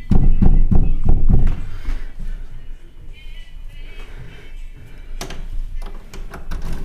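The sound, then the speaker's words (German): A rapid series of loud, heavy knocks with an elbow on a hotel room door, about six thumps in quick succession, followed by a quieter stretch of background noise and a faint later bump. “Okay, da sind komische, komische Töne kommen da raus, aber ich klopfe mal. Oh, lauter klopfen, Ellbogen klopfen.”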